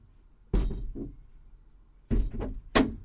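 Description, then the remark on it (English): Doors being opened to let air in: a sharp clunk and rattle, a pause, then two more quick thuds and a scrape of latches and frames, with nothing else heard. “Open the doors. Open the doors. Let some air in.”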